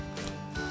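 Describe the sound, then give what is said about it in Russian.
A short metallic click-and-rattle of a key turning in the lock of a guest room door, two quick mechanical bursts, with no talking over it. “Ключ.”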